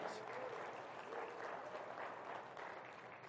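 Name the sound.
audience applauding in praise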